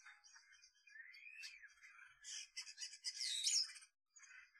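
Songbirds sing in a busy, overlapping chorus of bright chirps, warbles and trills, fairly loud, swelling toward the end before a brief pause and a last few notes.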